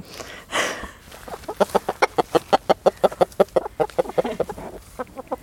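Chickens in a chicken tractor, a mobile coop moved around the yard, cluck in a quick, steady series of short pulses from about 1.5 seconds on, fairly loud, after a brief rustling burst at the start; no one speaks.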